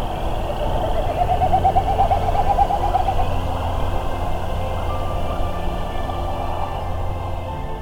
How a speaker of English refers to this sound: During evensong, species such as American woodcock and this Wilson snipe come out to make elaborate displays of sound.